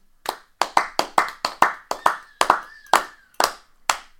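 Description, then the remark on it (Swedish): Brief applause: about a dozen sharp, crisp claps at a brisk, slightly uneven pace, with a faint thin tone gliding in the background midway through. No one speaks. “Applåder!”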